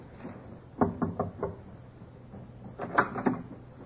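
The captain knocks on a ship's cabin door: a quick run of four raps, a short pause, then two or three more knocks, fairly loud.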